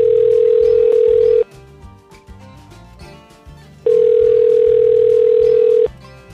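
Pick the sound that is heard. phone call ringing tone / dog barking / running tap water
phone call ringing tone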